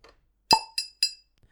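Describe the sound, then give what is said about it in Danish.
Three bright glass clinks in quick succession during a toast backstage at a venue in Greve, the first fullest with a low thump, the next two lighter and ringing, with no talking. “Skål!”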